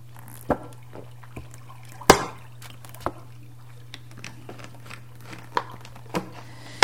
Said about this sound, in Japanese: ちょっとほうじ茶飲みます